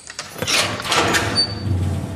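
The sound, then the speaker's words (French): A heavy prison cell door slides open with a long grinding, rattling rush of metal that lasts about two seconds, fairly loud, ending with a low rumble. “Ouvre la porte.”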